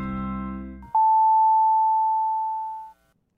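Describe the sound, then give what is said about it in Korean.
A radio time signal marking 6:30, presented by the LG Cord Zero A9 compressor: one loud, steady, high beep held for about two seconds, clean and unwavering, right after a brief burst of fuller sound cuts off. “LG 코드 제로 A9 컴프레서가 6시 30분을 알려드립니다.”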